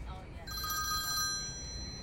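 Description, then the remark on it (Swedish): A telephone rings once during a call made from an SJ train approaching Nässjö, Sweden: a steady, bright electronic tone lasting about a second with shimmering high overtones, over a constant low rumbling background noise. “Att SJs egen tidning hävdar att man kan ringa under färd betyder verkligen inte att det går.”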